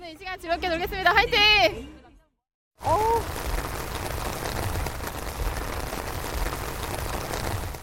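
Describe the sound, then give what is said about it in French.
Voices talk briefly, then after a short silence a heavy rainstorm breaks out at a festival: a dense, steady hiss of pouring rain that stays loud and continuous to the end. “Très rapidement, il se met en effet à pleuvoir des halbardes, comme si le réservoir du ciel s'était déchiré en deux”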